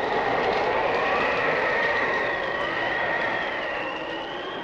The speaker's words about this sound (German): Die Apostel hörten einen großen Sturm. Hui, wo kommt er her?